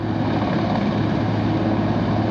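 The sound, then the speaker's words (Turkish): A steady, loud engine drone with a low mechanical hum from a gendarmerie helicopter rescuing a family stranded by a flood in Doğankent district, continuing evenly without pause and with no voices. “Doğankent ilçesinde ise evlerinde mahsur kalan aynı aileden ikisi engelli 6 kişi selin yaşandığı akşamın sabahında jandarma tarafından helikopterle kurtarıldı.”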